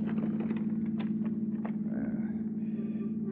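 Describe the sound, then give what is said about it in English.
A steady, low engine drone hums throughout from a taxicab weaving through traffic, with faint passing swishes and light rattles of traffic layered over the constant rumble. “As the taxicab weaves through traffic, you open the portable typewriter case on the floor where the driver can't see it.”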